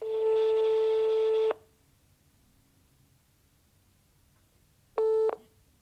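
A telephone ringing tone sounds as a steady electronic buzz for about a second and a half, pauses through a long quiet gap with faint line hiss, then starts again briefly.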